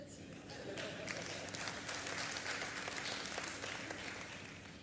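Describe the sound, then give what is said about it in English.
Steady applause from an audience, a dense crackle of many hands clapping that holds at an even, moderately loud level for the whole stretch, with a faint murmur of voices underneath. “No claps on that one?”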